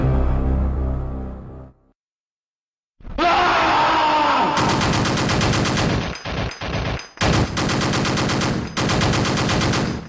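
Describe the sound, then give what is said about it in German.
A low, fading rumble gives way to a moment of silence, then a video game soldier fires his gun in loud, rapid automatic bursts broken by a few brief pauses. “der aus seiner Knarre schoss und, und dann irgendwann anfing zu schreien”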